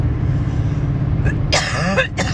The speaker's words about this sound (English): oh, good lord! I can't stop coughing.